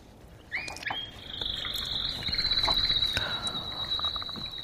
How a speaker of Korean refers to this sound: 카나리아 소리랍니다. 예쁜 새소리, 카나리아. 예. 꼭 둘이 부, 불의를 부비면서 이렇게 평생 해로하잖아요. 근데 한 녀석이 없어지면 시름시름 앓다, 앓는다고 그러죠.